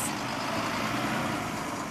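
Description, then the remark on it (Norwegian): Steady, continuous engine rumble from an idling bus fills the busy bus station in Porsgrunn, a broad even hum with no voices and no breaks over two seconds. “På bussentralen i Porsgrunn er det flere som synes det er dyrt å ta bussen.”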